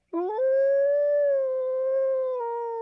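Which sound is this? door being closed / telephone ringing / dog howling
dog howling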